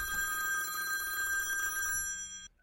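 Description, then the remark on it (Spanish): A 3G cellular phone call's ringing tone sounds as one steady, buzzy electronic ring lasting a couple of seconds, then cuts off into silence. It is fairly loud, with no voices. “Llamada número uno. Tecnología celular normal, 3G.”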